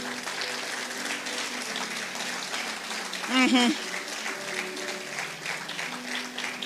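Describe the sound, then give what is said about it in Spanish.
An audience applauds for God in a steady, dense wash of clapping that holds throughout, with a brief raised voice breaking through midway and murmuring voices beneath. “Yo sé que es difícil hasta aplaudir, pero como el aplauso no es para mí, si es que es para Dios, délo.”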